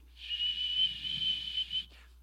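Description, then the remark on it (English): A person whistles one thin, steady, high note for about a second and a half, breathy and airy, mimicking cold winter wind whistling through a crack, then it cuts off. “It's just like a cold winter morning when you get to whistling.”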